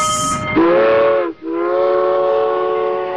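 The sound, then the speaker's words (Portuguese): A steam locomotive whistle sounds two loud, sustained blasts, the first with a slight rising bend, separated by a brief gap, preceded by a short hiss of steam. “E agora, encerrado aí a nossa viagem pelo sul, vamos pegar o trem, vamos pegar o Maria fumaça e para Minas Gerais.”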